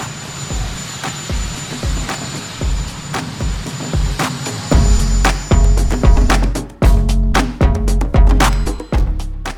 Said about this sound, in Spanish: Aquí tenéis el sonido del helicóptero. Y igual lo habéis detectado, es Joe Biden.